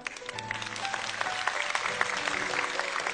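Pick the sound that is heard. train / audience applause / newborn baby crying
audience applause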